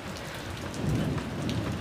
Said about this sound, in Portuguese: Agora eu vou entrar, parar de gravar esses trovão porque tá chovendo pra caralho. Eu acho que dá pra me ouvir, né? E dá pra ouvir os trovões também.